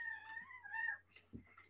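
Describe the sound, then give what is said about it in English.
A cat lets out one long, drawn-out meow with a wavering pitch, followed by a few faint clicks and rustles in the background. “I we don't say, apologize for cats.”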